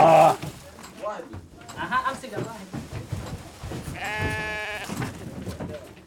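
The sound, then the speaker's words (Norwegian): Two sheep bought from a neighbouring farm bleat, a short cry at the start and a longer, wavering bleat near the end, amid rustling movement and murmured human voices. “har kjøpt to sauer fra nabogården”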